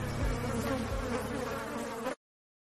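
A steady, dense insect buzz sound effect drones loudly for about two seconds, like bees or wasps swarming, then cuts off abruptly into silence.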